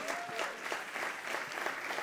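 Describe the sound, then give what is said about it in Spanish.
An audience applauds steadily, a dense wash of many hands clapping with a few sharper claps rising above it, sustained at an even loudness throughout with no speech over it. “Si usted va a aplaudir, hágalo bien.”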